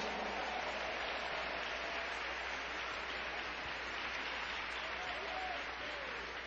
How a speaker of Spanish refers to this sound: Dale un fuerte aplauso al Cordero de Dios.